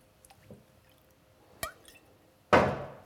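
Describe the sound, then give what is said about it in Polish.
Liquid is poured from a measure into a small cup: a few faint drips and a sharp tap, then a short, loud splashing gush that quickly fades. No one speaks. “I przelewamy do kubeczka.”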